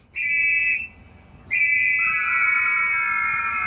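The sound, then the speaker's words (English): Loud, piercing steam whistles sound a sustained note, break off briefly, then return as several pitches held together in a bright, shrill chord, like a calliope with no voices present. “A piano cannot do what the Calliope does, is it sends out all these hot whistles into the air at one time.”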